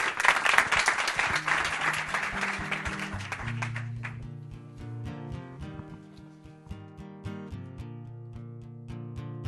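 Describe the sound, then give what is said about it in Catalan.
A crowd bursts into loud, dense applause for a singer who is about to sing, filling the first few seconds, then fading as steady melodic music with sustained notes takes over. “aquest fort aplaudiment és per tu”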